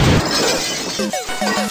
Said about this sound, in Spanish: Ese fue el día que me loqué y rompí la pantalla del televisor.